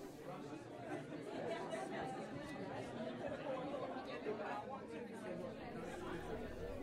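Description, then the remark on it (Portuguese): Steady murmur of an audience in a concert hall chatting between performances, many overlapping voices blending into a continuous, indistinct hum with no single word standing out, holding an even level throughout. “Pode até parecer que não, mas aquele murmurinho da plateia de uma sala de espetáculos entre duas atuações causa uns certos nervos.”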